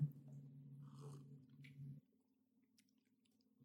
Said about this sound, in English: And this week, we are drinking Sunbird's Kuro Mamecha. Kuro so, Mamecha. Yeah, it's a black soybean tea. So um, have you guys tried it yet? Let's, let's all take a quick sip.